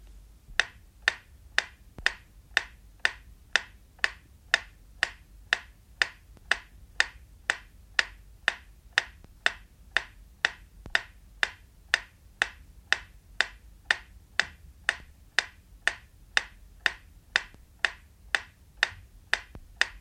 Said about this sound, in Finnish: Lopuksi vielä metronomin tikitystä kaiutinparin ajatellusta keskipisteestä. Tämän aikana voitte säätää vastaanottimessanne olevalla balanssi- eli tasapaino säätimellä tikityksen mahdollisimman tarkasti keskelle.